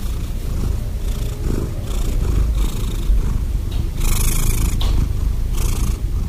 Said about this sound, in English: So, how and why do cats purr? Cats purr when they force air into their throats where their vocal cords are, and they cause the vocal cords to vibrate.